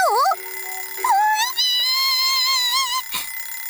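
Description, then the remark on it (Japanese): Countless alarm clocks ring out together in a coral garden: loud electronic tones warble and trill for a few seconds, a shrill, continuous ringing with wavering pitch, cut off briefly by a sharp thump near the end. “その時ピピピピピピ無数の目覚まし時計が鳴り響きサンゴガーデンごと震え始めましたな何の音”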